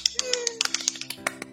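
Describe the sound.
Quick, steady hand clapping, about a dozen sharp claps in under two seconds, with a faint voice humming along beneath them.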